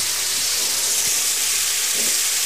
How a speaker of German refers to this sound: und ich habe es äh, rechtzeitig, ich glaube gestern Abend schon im Kühlschrank getan, damit es dort ähm, schön langsam wieder auftaut und äh, ich das jetzt fertig aufgetaut in die Pfanne tun kann. Wichtig da ist, die Pfanne schön heiß ist